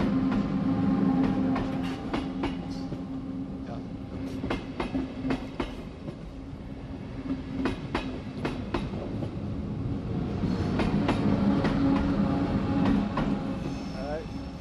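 A train rumbles steadily past on the rails, with repeated sharp clicks and clacks of wheels over track joints above a continuous low roar, loud throughout.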